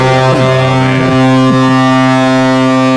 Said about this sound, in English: they'd be like playing the replay where you hear the horn and then it'd cut for a second and then you got a horn going again